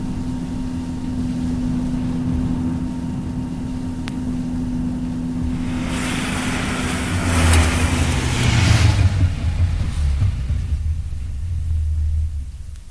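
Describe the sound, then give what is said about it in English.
A car engine hums steadily, then a burst of crunching tyre noise and a deeper rumble as the car pulls in at Elm Hall, an old house, and slows to a halt, with no voices. “Well, don't just sit in the car, Stephen.”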